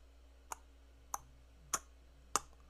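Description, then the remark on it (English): Four crisp, evenly spaced clicks imitate the footsteps of two or three people walking on stone pavers in the older streets of Venice, each step a little louder than the last as if drawing closer, over a faint steady hum. “And because of your amazing successes, uh, most of you are able to p- figure out that it's at least two, uh, if not possibly three people walking this way”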